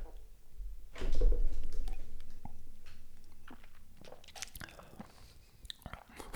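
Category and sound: food or drink, sipping whiskey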